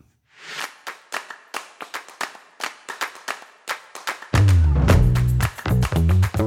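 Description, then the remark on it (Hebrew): A single pair of hands claps about a dozen times in a steady, brisk rhythm, sharp and moderately loud, before loud music with a heavy bass beat cuts in. “לעזוב את מועדון יורה בעצמי חיצים ולעבור למועדון מוחת לעצמי כפיים זה מהפכני.”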